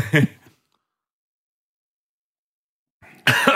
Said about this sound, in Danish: så fik jeg det galt i halsen.